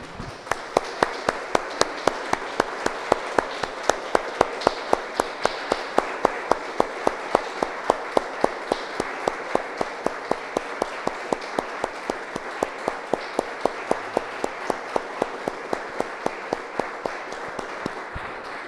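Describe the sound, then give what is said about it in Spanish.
An audience applauds after a prayer, steadily for almost twenty seconds, a dense wash of many hands with a few sharper claps standing out in an even rhythm throughout, without any voices. “Damos un aplauso, hermano.”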